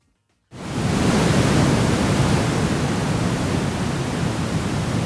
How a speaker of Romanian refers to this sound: White noise se cheamă. Da, este... pentru, pentru somn. Pentru somn, pentru liniștire.